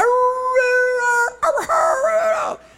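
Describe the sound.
A person imitates a dog howling: a long, steady, tonal howl held for over a second, then a wavering, sliding second howl that trails off, fairly loud with no other sounds.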